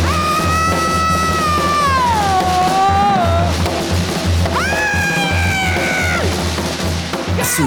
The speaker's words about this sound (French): Ces ou plutôt ces cris, brutaux, effrayants, remplis de violence et de haine, comme l'écrira un chroniqueur de la revue Dumbit